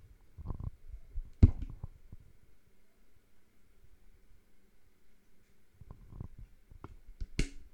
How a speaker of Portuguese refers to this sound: Será que alguém gostava de me ouvir bebendo água?